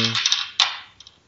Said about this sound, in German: Ja, dann würfel doch gleich nochmal und dann.